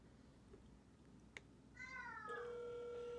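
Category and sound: signal or alarm, phone call ringing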